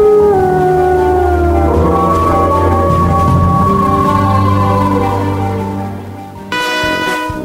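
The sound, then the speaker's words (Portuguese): Long, loud wolf howls rise and slowly bend in pitch, several overlapping voices forming a sustained, eerie chorus that carries on for the whole stretch with no talking. “Essa figura que no meio rural está ligada à mistura de homem e lobo e que na noite de lua cheia vem assustar todo mundo.”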